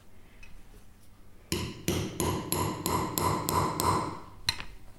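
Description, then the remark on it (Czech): A hammer strikes metal letter punches to stamp initials, about eight sharp, ringing blows in a steady rhythm after a quiet start, with one last lighter tap at the end. “Vlastně boucháme ty iniciály.”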